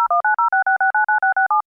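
A quick, even run of about eleven telephone beeps, each a short two-pitched tone like keys being dialed, loud with no voices, ending in silence.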